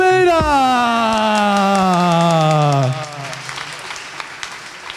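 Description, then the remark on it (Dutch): An audience claps steadily throughout, the dense patter of many hands continuing alone after a loud, sustained tone slides downward in pitch over the first three seconds and cuts off. “Groot applaus.”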